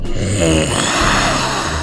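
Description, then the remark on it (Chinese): A voice imitates the low roar of Allen, a crocodile in a story being told: one rough, rumbling growl held for about two seconds, loud and steady, with no talking around it. “艾伦大吼，发出低沉的声音”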